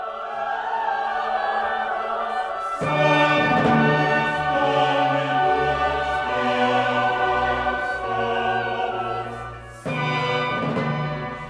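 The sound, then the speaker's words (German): A large six-part choir sings the Sanctus of a baroque mass in rich, many-voiced polyphony, full, with sustained chords that swell strongly around three seconds, ease off, then surge back near the end. “Was ihr gerade hört, sind die himmlischen Heerscharen, vertreten durch den Chor, der inzwischen sechsstimmig ist.”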